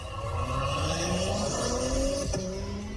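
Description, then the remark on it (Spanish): The 3-litre, 350-horsepower V6 turbo engine of an Acura MDX SUV accelerates steadily for about three seconds, its droning pitch climbing smoothly and continuously at a loud, even level, with a brief click near the end and no talking. “A ver, acelérale, Diego.”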